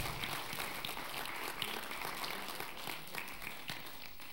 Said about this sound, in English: They're doing a fantastic job. Let's have a round of applause and praise for that which is being accomplished.